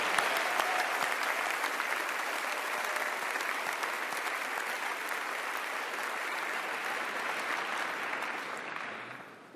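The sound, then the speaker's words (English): A large audience claps steadily in a sustained round of applause for the trustees, dense and even throughout, tapering off slightly at the very end. No voices are heard. “And so, would you just join me in expressing appreciation with a round of applause for all of our trustees this day?”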